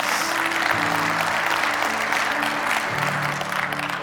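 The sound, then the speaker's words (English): A live audience claps steadily for several seconds to celebrate truth, a dense wash of many hands, with faint tonal hum and background murmur underneath. “just know that like clapping right there, that wasn't clapping for me. That was just clapping for truth.”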